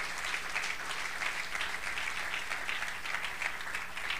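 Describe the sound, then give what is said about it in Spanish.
A crowd claps steadily and continuously, a dense wash of applause from many hands filling the space at a moderate level, with no clear voices standing out. The applause is given to the Lord during a talk about God. “Démosle un aplauso al Señor.”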